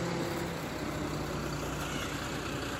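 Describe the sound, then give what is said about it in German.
A city bus on line 1 idles steadily at a bus stop, its engine a continuous low rumble with a broad hum filling the background for the whole few seconds, no voices present. “So, der Bus ist da. Ich steige jetzt ein.”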